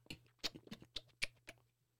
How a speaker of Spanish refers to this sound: Eso es un sonido de básicamente chupándose el dedo.